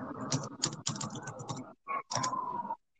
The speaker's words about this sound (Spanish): Sí, yo igual te escucho, estás tecleando.